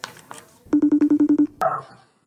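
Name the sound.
telephone ringing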